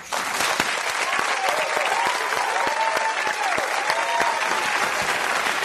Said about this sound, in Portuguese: Isso merece aplausos.